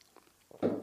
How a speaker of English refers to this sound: We're gonna take a sip.